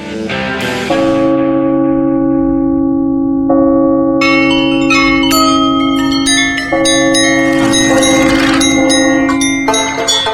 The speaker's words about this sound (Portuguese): tempos natalinos, os sinos se fazem muito presentes.